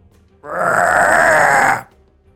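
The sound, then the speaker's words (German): A single deep, growling monster roar heard from the east, loud, held steady for over a second before cutting off abruptly, with nothing else around it. “Du hörst aus dem Osten noch eine weitere, äh, weiteren, weiteres Gebrüll.”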